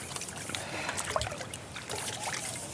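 Water sloshes and trickles in a steady stream, with soft splashes and faint clinks as dishes are rinsed and moved around in a basin outdoors on the south shore of Nässy, after a mushroom dinner.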